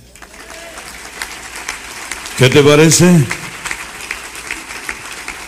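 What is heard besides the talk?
audience applause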